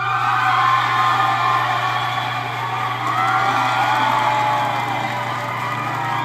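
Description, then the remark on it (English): A live concert crowd cheers and applauds loudly and steadily for several seconds, with high whoops rising out of the dense wash of clapping and a low steady hum underneath. “See, they got a big following. Or they got an applause gotta machine.”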